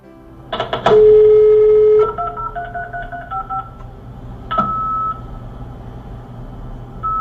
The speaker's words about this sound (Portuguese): Esse antigo aparelho é o fax modem. Um pouco mais de 20 anos atrás começou a internet no Brasil. Será que vai dar para passar o barulhinho ali do modem?